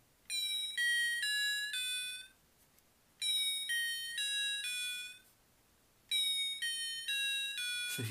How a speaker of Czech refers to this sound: tentokrát si musím vytáhnout své jednodolarové klávesy